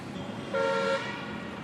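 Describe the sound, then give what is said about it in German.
A single short horn from the first starting buses and rickshaws honks for about half a second over a steady hum of street noise, heard from a rooftop in Bundi, clear, with no voices. “Nee, zwischen Affen, Papageien, Kühen, Raben. Ersten startenden Bussen”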